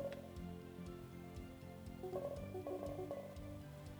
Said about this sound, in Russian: Как только мы услышали звуковой сигнал, значит клавиатура где-то рядом. Если звуковых сигналов стало больше, то значит мы все теплее и теплее.